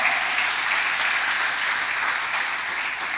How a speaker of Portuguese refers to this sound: Faz um amém aí e dá um aplauso a Jesus aí bem forte.